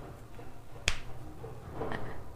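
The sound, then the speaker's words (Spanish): One sharp, sudden bang from construction work outside cuts through a low, steady rumble, followed by a softer, more muffled knock a second later. “¿Me alcanzas a escuchar con todo ese ruido de construcción que hay afuera?”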